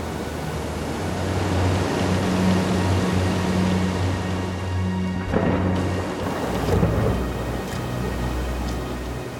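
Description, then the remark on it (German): A thunderstorm with steady heavy rain and deep rolling thunder rumbling throughout, swelling into a sharper crack midway before the low rumble continues. No voices. “Entspanne dich, folge der Atemmeditation und genieße die Kraft und den Sturm.”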